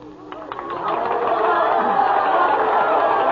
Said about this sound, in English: Anyway, in my dream, I heard cheering and applause in the distance. The mist suddenly disappeared, and I was standing on a huge stage I had just made a speech. The cheers and applause were all for me.